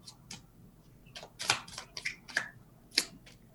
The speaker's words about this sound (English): so what happens is I just shuffle until the cards stop like popping up, and then um,